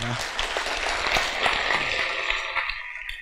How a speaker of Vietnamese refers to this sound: dành cho anh em một tràng vỗ tay thật lớn cảm ơn anh